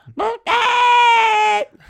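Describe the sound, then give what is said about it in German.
A voice imitates a squeaky rubber chicken toy: a short rising squeak followed by a long, strained, nasal screech held for over a second, loud. “Aber das, Aber das, das macht e- genauso ein Geräusch, wie du gerade gemacht hast.”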